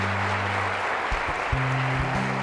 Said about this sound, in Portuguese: Você pode aplaudir o Senhor pela vida dele? Amém.